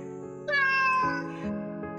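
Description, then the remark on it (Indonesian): A cat gives one long, drawn-out meow, fairly loud, rising then trailing off over a soft, steady background hum, with a brief quieter mew shortly after. “Ucap Dilana kepada kucingnya. Tapi si kucing tetap diam di tempatnya.”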